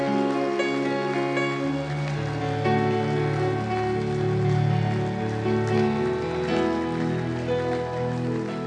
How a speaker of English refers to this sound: Come on, clap like something has been done for you. Clap like something has been done for you.